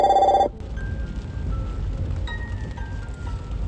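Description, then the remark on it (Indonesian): A telephone rings once, a loud, brief electronic trill at the very start that cuts off quickly, leaving a low, steady background rumble with faint lingering tones and no talking. “Nah, karena ada telepon kita tunda dulu ya pembahasannya kita lanjut nanti.”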